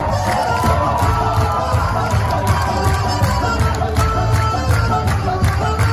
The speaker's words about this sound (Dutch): Op Twitter gaat een video rond eh, van dansende politici in het Europese parlement en die klinkt zo.